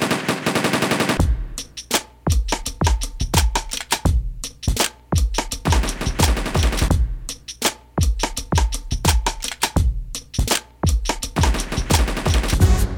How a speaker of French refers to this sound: À l'époque du Dirty South, tu sais, en, fin de cycle, ils font toujours des, roulements de TR-808. Et là, carrément, j'ai pris un, son de mitraillette et, un, et voilà, quoi, tu vois, qui fait le, qui fait le truc, qui fait le... tu vois.